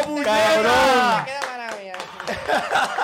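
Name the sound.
applause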